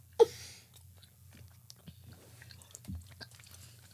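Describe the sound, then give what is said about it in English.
Quiet chewing of a soft, sticky blue raspberry fruit candy called Chew It, with irregular wet smacks and clicks after a sharp bite-like pop at the start, over a low steady hum. No one speaks. “As you keep on choo chewing, mm-hmm. it's more blue raspberry. This is chewier than a Hi-Chew, bro.”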